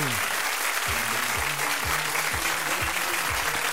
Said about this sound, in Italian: E ora ringraziamo Maria per questa lezione di Aqua Gym con i valli di gruppo. Facciamo l'applauso a Maria.